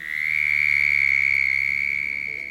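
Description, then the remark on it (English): A North American frog gives a loud, high-pitched trill, one long unbroken call of rapid pulses that holds steady for the whole stretch, with no talking; from a non-musical album recording of North American frog sounds. “Sounds of the Office, sounds of the junkyard, sounds of North American frogs.”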